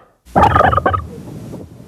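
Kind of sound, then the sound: bird, turkey gobbling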